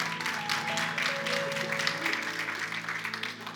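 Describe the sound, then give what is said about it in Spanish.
An audience applauds steadily, a dense wash of clapping that holds at an even loudness, with sustained musical tones underneath. “Deles aplauso fuerte a Cristo porque Él es bueno.”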